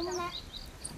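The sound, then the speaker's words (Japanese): Birds chirping outdoors in the early morning at a mountain auto campground, after a night in a camper van, as the sky clears to sunny breaks after expected rain, with several short high-pitched calls in quick succession over a soft, steady ambient background. “ほら鳥の鳴き声聞こえるでしょ”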